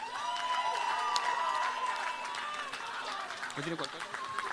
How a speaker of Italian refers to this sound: Allora, 74 punti per i TNM e 71 punti 71 punti Mesi Opera, complimenti, un grande applauso ai Mesi Opera.